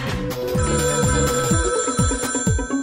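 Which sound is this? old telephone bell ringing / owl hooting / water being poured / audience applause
old telephone bell ringing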